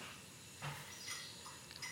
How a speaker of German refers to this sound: Katze gegen die Tür gesprungen